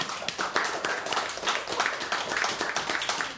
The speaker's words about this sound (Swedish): Applåd för musiken.